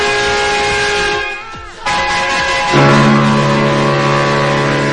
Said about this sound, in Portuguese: Agora é o combo de buzinas aqui!